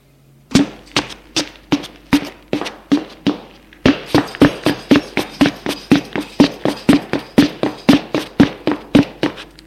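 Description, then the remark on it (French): Hurried footsteps clatter down a staircase in a quick, steady rhythm of sharp thuds, roughly thirty in all, growing slightly louder partway through, with no voices. “Il dépasse la femme et descend les escaliers en vitesse.”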